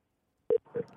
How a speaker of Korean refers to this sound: 전화 한번 걸어볼게요. 기사님이신데 운행하세요. 그럼 얼른 끊을게요.